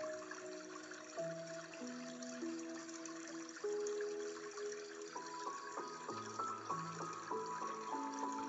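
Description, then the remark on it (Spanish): Water flows steadily and continuously, an even rushing wash with soft sustained tones shifting in pitch underneath; no one speaks. “Escucha el agua y recrea sus sonidos con detalle.”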